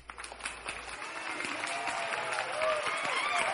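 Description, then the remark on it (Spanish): Steady crowd applause in worship, clapping in praise of the Lord, fills the whole stretch, a dense crackle of many hands clapping at once, fairly loud, with faint music or voices tucked underneath. “Sí, Señor, te alabamos, aplaudimos en tu honor, Señor, y entre gritos de júbilo te ofrecemos el fruto de nuestros labios la alabanza que te pertenece, Señor.”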